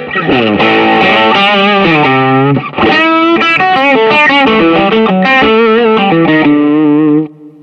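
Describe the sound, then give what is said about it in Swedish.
A heavily overdriven electric guitar, played through stacked overdrive pedals with a Tube Screamer-like character, plays a loud, sustained melodic line with thick, saturated distortion, with a brief dip near the middle before it rings on and cuts off abruptly. “Ändå, att, ändå är jag fascinerad att eh, det stackar så pass bra med tanke på att den är den har ju lite den här separerade Tube Screamer Precis.”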